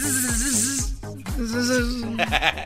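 A bee buzzing, a loud wavering drone that rises and dips in pitch, played continuously over a steady thumping beat with no voices.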